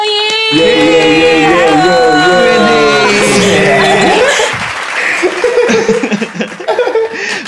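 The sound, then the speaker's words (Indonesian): A burst of audience applause with cheering and laughter fills the first few seconds loudly, tapering off as people begin talking over the fading noise. “Kita tepuk tangan buat Mas Rando.”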